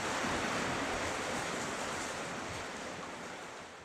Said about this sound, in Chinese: 现在那个雨声又很大